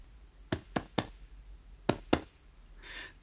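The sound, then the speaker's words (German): Five short, dull taps on the left side of a patient's flank during an examination: three in quick succession, a pause, then two more, followed by a faint rustling hiss. “Wenn ich auf der linken Seite klopfe, Tut das weh?”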